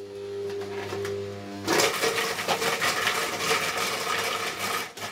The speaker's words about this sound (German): Und dann kommt das Ganze in den Mixer. Okay. Oder wird kurz laut. Ist in Ordnung.